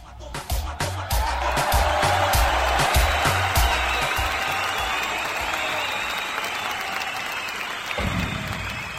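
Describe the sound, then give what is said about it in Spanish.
Loud, dense applause and cheers from an audience welcoming a performer, sustained for several seconds with a busy wash of clapping and some crowd noise, continuous. “fuerte el aplauso.”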